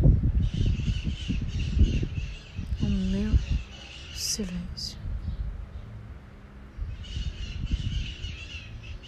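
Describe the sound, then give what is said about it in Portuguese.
Maritaca parakeets squawk in harsh, rapid bursts outdoors, a chattering flock calling over and over while a person speaks quietly. “E quanto maior o barulho de fora, as maritacas maritando.”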